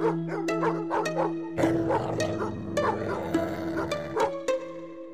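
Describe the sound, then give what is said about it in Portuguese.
Dogs bark in sharp, repeated bursts, loud and uneven in rhythm, with a low steady hum running underneath and no talking. “Ainda por cima com dois cães e um lobo.”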